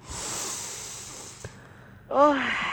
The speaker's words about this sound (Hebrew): תקשיבי, לנשום עמוק, ממש לנשום עמוק. קחי נשימה עמוקה, אני רוצה לשמוע רגע.